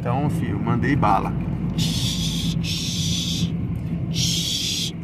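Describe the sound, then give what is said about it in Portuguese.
A paint sprayer's air compressor runs steadily with a low hum while a gate is being painted, bursts of sharp hissing spray starting and stopping in rhythm. A man talks briefly over the noise at the start. “é o barulho do compressor, tá?”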